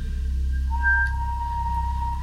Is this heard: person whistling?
yes